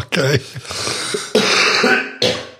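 Three harsh, loud coughs, spaced about a second apart, with a raspy, throaty voicing lingering between them.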